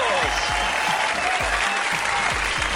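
An audience applauds steadily and loudly throughout, a dense wash of clapping, while deep rhythmic thumps of music pulse underneath about twice per second.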